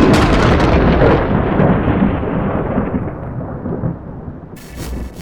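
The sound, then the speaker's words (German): A loud thunderclap following a huge lightning flash cracks open at full force, then rolls into a long, deep rumble that slowly fades over several seconds, with no voices present. “Ein Wahnsinnsblitz. Hau und grau und dann ein mega lauter Knall.”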